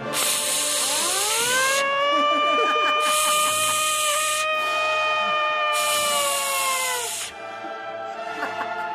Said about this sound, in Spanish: Y la sirena.